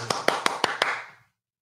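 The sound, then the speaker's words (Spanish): A short burst of applause for a singer: about five crisp, evenly spaced claps over a diffuse wash of clapping noise, cutting off abruptly after a second. “Aplauso para ….”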